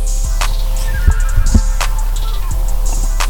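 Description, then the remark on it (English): Several short, sharp hiccups spaced irregularly, each a quick abrupt gulp of breath, fairly loud over a steady low background hum. “Got the hiccups.”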